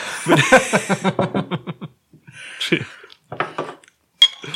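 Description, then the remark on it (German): Glasses clink together in a toast, one holding red wine, with a bright ringing tap near the end, amid soft chuckling and rhythmic laughter. “Puh, dann lass uns bitte erst anstoßen.”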